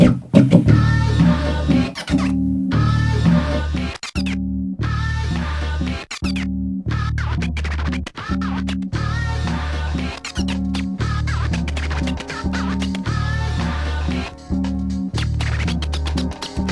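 Instrumental hip-hop intro from a track written in 1990 and released in 1993: a loud, heavy bass loop over a steady beat, cut by short drop-outs and squeaky record-scratch accents, with no vocals.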